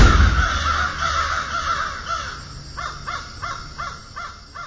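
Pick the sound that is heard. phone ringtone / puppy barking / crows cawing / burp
crows cawing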